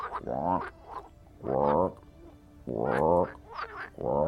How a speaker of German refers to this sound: Und dann auf einmal werden es ganz viele also dieses Quaken äh, schließen sich dann mehrere Frösche eben an und du hast dann einfach wirklich ein, ein, ein, ein, ein Froschkonzert.